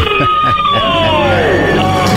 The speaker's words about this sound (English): Count it down. Let's hear a debt-free scream three, two, one.